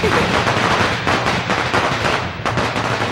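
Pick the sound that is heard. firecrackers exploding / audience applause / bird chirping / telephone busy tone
firecrackers exploding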